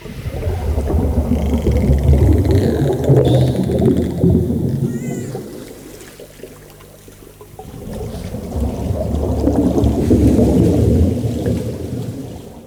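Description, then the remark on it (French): Eerie high whistles and sweeping tonal cries, like whale or dolphin calls, drift over a deep, rumbling underwater drone that dips quiet midway before swelling again. “Vous entendez Ce doit être le chant de dauphin ou de baleines.”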